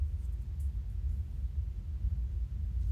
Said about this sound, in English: Now I'm gonna need this train to hush. Really? yeah, it is a train in the background, y'all. So if y'all hear that noise, that's what that is.